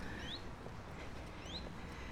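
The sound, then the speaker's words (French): Two short rising bird calls ring out about a second apart over a steady outdoor hum of car traffic from an avenue alongside, fairly faint and with no talking. “Tu vois, de ce côté-ci c'est chouette parce que tu es ouvert, et de l'autre côté c'est l'avenue avec les bagnoles et tu entends les oiseaux.”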